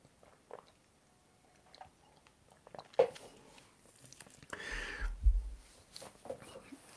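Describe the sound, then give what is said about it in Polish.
Three quiet sips of water from a copper cup, spaced a few seconds apart, with soft mouth and swallowing noises and a faint clink of the cup. “Będą trzy łyki wody z miedzianego kubka.”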